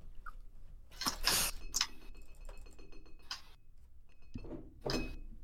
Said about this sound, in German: Ja, man hört nicht, wie ich gerade Kekse esse, oder? Nur ein bisschen. Nur ein ganz bisschen, wenn du redest.